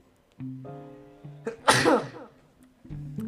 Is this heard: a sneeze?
yes